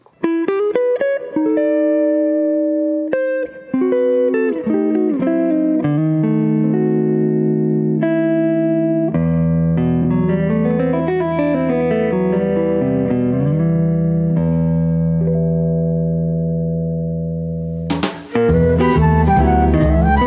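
A 56-second flat-picked guitar instrumental, a short interlude between tunes on an album, with crisp single-note runs that give way to ringing, sustained chords drenched in reverb-like effects, played loud and steady, then a sudden bright burst near the end.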